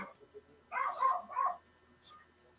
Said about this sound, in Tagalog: So, walang tigil yung tawol ng aso po.